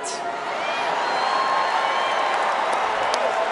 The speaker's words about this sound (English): People are still chanting and booing and saying Bernie, Bernie, Bernie.